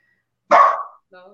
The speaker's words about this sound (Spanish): Y es que si lo saco, como hay más estímulos que lo hacen ladrar, va a ladrar más.